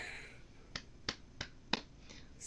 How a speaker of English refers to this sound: slow clap.